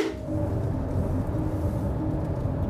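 A steady, low engine drone fills the cabin of a moving car, a constant rumble with a faint hum above it and no voices, holding an even level throughout.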